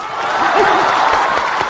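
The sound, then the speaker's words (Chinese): An audience claps steadily, a dense wash of many hands applauding at a sustained, fairly loud level, with faint crowd voices mixed in underneath. “朋友们，今天是团圆的日子，您就伸出您温暖的手，为我这孤寡老人鼓鼓掌吧。谢谢，这年头就是好人多呀。”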